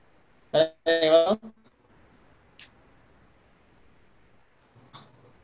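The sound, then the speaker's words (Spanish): A female cat, one of several, goes wild and lets out two loud, strained yowls in quick succession, followed by near silence with a couple of faint rustling sounds. “Una de las gatas esta se volvió loca.”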